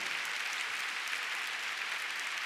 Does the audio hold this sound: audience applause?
yes